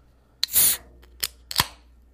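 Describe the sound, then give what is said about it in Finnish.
A drink can being opened: a sharp click followed by a short, bright hiss of escaping gas, then two more small metallic clicks. No voices. “Pisse auki.”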